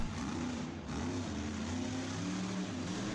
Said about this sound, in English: The monster trucks are coming.